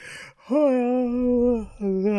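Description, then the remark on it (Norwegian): Someone fakes a big yawn, imitating Robin trying to get Ted to leave by yawning: a quick breathy intake, then a long, steady voiced 'aah' held for about a second, followed by a short second vocal sound. “Robin prøvde å få Ted til å dra med å gjespe og bare sånn”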